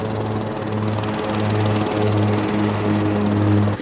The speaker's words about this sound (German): wir haben eben die Sicherheitsinstruktion bekommen und gleich geht es hier los mit dem Helikopter von Papillon zu einem Rundflug über Nevada in den Grand Canyon.